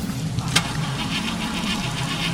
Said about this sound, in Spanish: Intentó arrancar el coche.